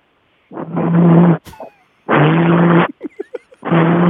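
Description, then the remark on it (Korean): A voice imitates a phone vibrating in a bag: three loud, low buzzing bursts of under a second each, separated by short clicks and rustles as the phone is taken out of the bag and, the call left unanswered, set down on a table. “가방에서 진동이 울려서 이제 꺼냈다가 전화 받기 싫은 전화가 테이블 위에 올려놓는 소리입니다.”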